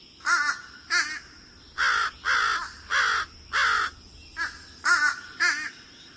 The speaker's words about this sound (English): So, if you hear a bird in your neighborhood that sounds like it could use some cold medicine, keep an eye out for fish crows.